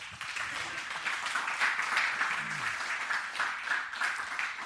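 Steady applause from an audience, a dense wash of many hands clapping at an even, moderate loudness for several seconds, with a faint voice briefly audible underneath.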